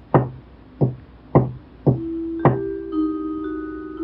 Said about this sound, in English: From that night forward, every once in a while, Jessica would hear a knock coming from her closet.